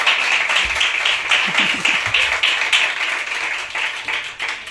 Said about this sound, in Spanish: Y por tanto, al ser un ángel, recibe este aplauso.